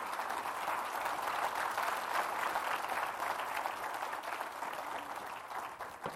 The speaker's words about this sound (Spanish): ¿Cuántos dicen gloria a Dios? Dele un fuerte aplauso al Señor, está bien.